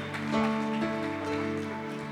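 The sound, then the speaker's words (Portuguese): An audience applauding in praise to the Lord in a dense, steady wash of clapping that holds for a couple of seconds, with a sustained keyboard chord ringing underneath. “Dê um brado de vitória ao Senhor e aplaudo neste lugar.”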